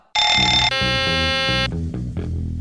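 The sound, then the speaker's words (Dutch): A loud electronic cockpit warning alarm: a bright, buzzy tone that abruptly switches to a second, denser tone, then gives way to lower pulsing sounds. No one speaks. “En dan moeten piloten dit soort waarschuwingen gaan negeren.”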